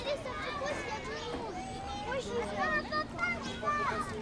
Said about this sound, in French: Sur le parvis, les enfants s'amusent